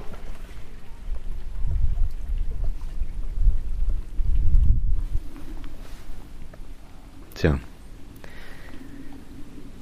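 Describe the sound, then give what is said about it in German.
A distant airplane drones overhead, a low, steady rumble that swells and fades across the outdoor quiet, with a brief sharper sound near the end. “Aber ein Flugzeug höre ich dafür von irgendwoher.”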